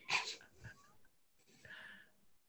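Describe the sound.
A woman's voice imitates a dog's bark: a loud, sharp yelp at the start, then after a pause a second, longer and softer bark-like call, with no talking.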